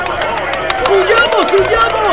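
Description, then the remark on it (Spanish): An enemy army fleeing on foot in panic, hurried footsteps mixed with frantic shouting and yelling voices, loud, a continuous chaotic commotion throughout. “El ejército enemigo despertó atemorizado y se fue corriendo de vuelta a su país.”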